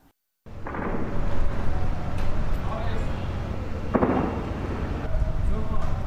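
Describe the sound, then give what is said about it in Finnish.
A few distant gunshot-like bangs sound at a slow, irregular pace across a steady outdoor background rumble, with faint voices murmuring in the surroundings, heard from a hotel yard in Aleppo, northern Syria. “Pohjois-syyrialaisessa Aleppossa hotellin pihalle kantautuu verkkaiseen tahtiin ääniä, jotka kuulostavat laukauksilta.”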